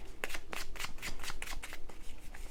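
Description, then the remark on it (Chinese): Tarot cards being shuffled before one more card is drawn, a quick run of crisp papery riffs and flicks in steady bursts, fairly loud and alone with no one speaking, tapering slightly toward the end. “那我再帮你抽一张吼。”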